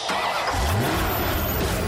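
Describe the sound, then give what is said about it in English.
A car engine turns over and revs up, its low roar climbing in pitch before settling into a steady, loud rumble that fills the whole moment, with no voices. “Ladies and gentlemen, start your engines.”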